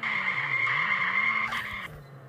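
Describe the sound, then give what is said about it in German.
A video game car skids with a sustained, high-pitched tire squeal over a low engine drone, holding steady before a brief crunch and fading slightly near the end. “So, jetzt müssen wir, oh, das Auto zu fahren ist voll schwer, weil das in so einer ganz komischen Perspektive.”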